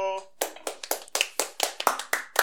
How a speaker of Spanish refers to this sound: Señores, ahí lo tienen, Ángel Rodríguez, así que un fuerte aplauso